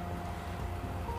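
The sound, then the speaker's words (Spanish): Steady, even hiss of rain falling in the background, soft and continuous with a low rumbling undertone and no distinct drops or pauses, with no voices. “Perdonen si se escucha la lluvia de fondo, fue muy improvisado, pero desde mi vista ahora mismo es espectacular.”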